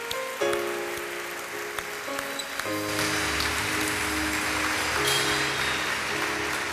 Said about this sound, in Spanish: Bueno, un aplauso de felicitación a estas personas.